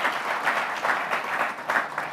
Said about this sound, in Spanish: Muy bien, pero nada, eh, un aplauso al Señor por lo que está haciendo entre los hombres de la iglesia.